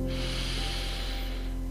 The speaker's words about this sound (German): Als nächstes atmen wir gemeinsam vier Sekunden ein und acht Sekunden aus. Hol noch einmal tief Luft und atme ein.